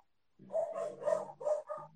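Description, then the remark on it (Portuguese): The speaker's dogs, Maria and José, bark in a quick, continuous volley of about five overlapping yaps, loud, in a street, with no one talking over them. “Meus cachorros tá dando muito para ouvir meus cachorros latir.”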